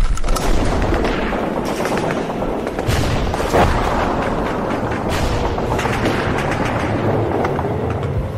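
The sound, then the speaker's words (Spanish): Dense, continuous gunfire mixed with heavy booming explosions, a loud chaotic barrage of rapid shots and deep blasts that never lets up, with no voices. “Sí, hombre, encima bombardeo. no tenéis otro momento? Hasta los cojones me tienen con tanto disparo y tanta bombita.”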